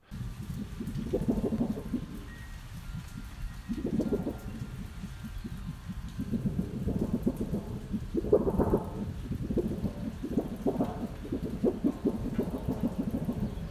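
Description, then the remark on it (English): A piece of sheet metal being waved around outdoors in the rain to mimic thunder: a series of wobbling, booming rumbles that swell and fade every few seconds over a steady hiss of rain. Nobody speaks. “Uh, but just before we do, I got to go out in the rain and wave this piece of sheet metal around.”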